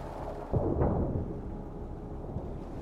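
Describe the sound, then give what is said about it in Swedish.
A helicopter carrying rescue personnel crashes in 2005, dragged down by strong winds while crossing a lake to fight a forest fire: a sudden heavy thud and a loud, rumbling burst of impact noise, fading into a low, sustained roar with a faint knock near the end. “Men starka vindar hugger tag i helikoptern som dras med ner i en krasch.”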